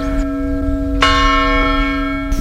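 A village church bell rings with a sharp strike and a long, humming resonance that sustains throughout, heard loud on the road leading to the cemetery, with faint lighter knocks and no voices.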